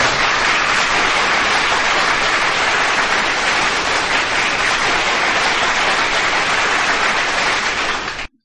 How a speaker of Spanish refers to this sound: Otro fuerte aplauso para ellos.